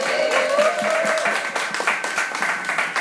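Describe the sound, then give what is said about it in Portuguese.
A crowd applauds steadily for DJ Bean with dense, continuous clapping, and a few raised voices and whistle-like cheers ring out over it, sustained at a fairly even loudness throughout. “Antes de mais nada, muito barulho aí pro DJ Bean, senhoras e senhores.”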